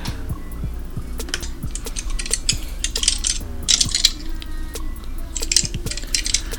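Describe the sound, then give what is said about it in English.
A carriage door lock being worked: repeated sharp metallic clicks and bursts of jiggling rattle over several seconds, with a steady low rumble underneath and no voices. “When a hand found the lock to the carriage door,”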